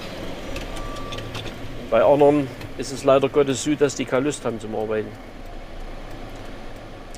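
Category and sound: vehicle, street traffic passing by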